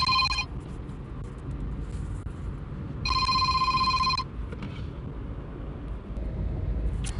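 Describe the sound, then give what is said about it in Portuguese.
A telephone rings during an interview being recorded on the road, in two bursts, a short one at the start and a longer trill a few seconds later, fairly loud over a steady low rumble of background noise. “É, aqui o telefone vai tocar, eu estou fazendo entrevista na estrada”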